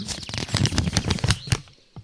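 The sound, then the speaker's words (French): A sheet of paper being unfolded, with a quick run of crisp crackles and rustles for about two seconds before it settles, ending in one last soft crinkle. No one speaks. “Alors, j'ouvre le papier et je.”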